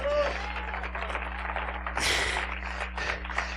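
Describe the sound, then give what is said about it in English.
An audience claps hands together in a dense, steady patter that swells louder partway through, with a low electrical hum and faint crowd voices underneath. “Give the Lord a hand clap of praise.”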